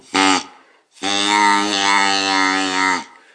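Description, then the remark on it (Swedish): A reed duck call blown through a short plastic tube gives a nasal, buzzy honk: first a brief blast, then a longer steady tone of about two seconds, fairly loud with no talking. “Och eh, då kan jag, eh, då kan man låta ankpipan gå genom det korta röret och då blir det en helt annan röstklang eh, som eh, låter konstig.”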